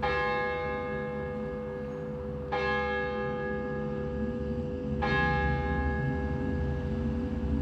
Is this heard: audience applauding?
no